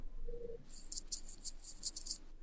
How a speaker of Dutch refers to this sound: Je ruist een beetje of je kraakt een beetje. Oh, sorry, nee, ik was over mijn hoofd aan krabben.